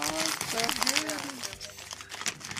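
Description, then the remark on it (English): Paper rustles and crinkles as it is unfolded, a steady run of crackly handling noises, with a voice talking over the first half before the crinkling continues alone. “All you oh. paper fetishists, get ready. Here it comes”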